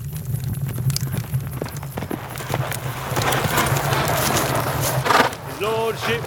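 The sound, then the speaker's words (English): Horse hooves clatter in an uneven, repeated clip-clop over a steady low hum as a horse returns to an estate, with a brief tonal sound near the end. “A rational person might conclude from the clattering of hooves that his lordship, the only horse owning person on this estate, has returned”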